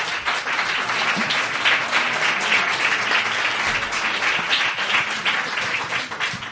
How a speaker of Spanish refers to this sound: Eh, bueno, pues tras esta explicación tampoco explicativa, pues vamos a darles un aplauso de ánimo a nuestras concursantes